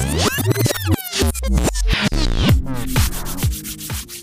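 Hands rubbing together briskly and steadily, a loud, continuous friction sound lasting a few seconds with no one speaking.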